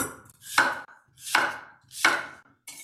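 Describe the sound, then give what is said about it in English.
A knife chops an apple into a couple of pieces on a cutting board for a salad dressing, in three sharp, evenly spaced strikes, each a bright crunchy crack, fairly loud with short pauses between, and a fourth beginning at the end. “Chop it up, put it in your blender.”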